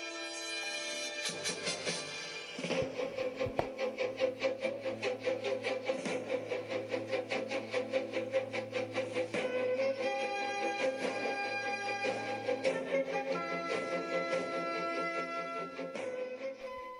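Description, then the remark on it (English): An upbeat Channel 9 TV theme tune for Australian cricket coverage plays on its own, with bright brassy melody over a steady driving beat and a sustained low bass line, loud throughout. “Well, that's the theme tune that means cricket to Australian fans”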